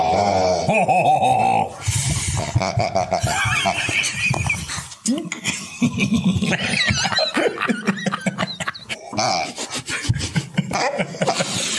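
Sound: pig grunting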